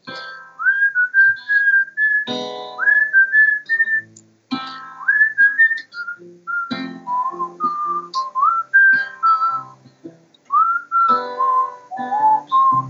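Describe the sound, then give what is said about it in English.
A person whistles a lively melody, with clear pitched notes sliding and hopping in short phrases for about thirteen seconds, accompanied by light instrumental backing underneath. “Yes, that was my big whistle solo.”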